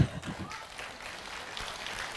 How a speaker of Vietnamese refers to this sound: những ông nào đang vỗ tay đề nghị ra ngoài mưa đứng